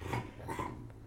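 A dog barks twice in quick succession, the barks fairly soft, with no voices in between.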